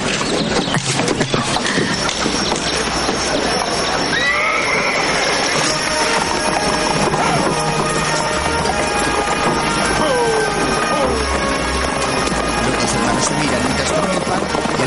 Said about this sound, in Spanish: llega la diligencia donde viene la novia de Johnny. El vehículo con el techo lleno de maletas se para ante él